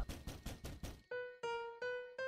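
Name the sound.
knocking on a door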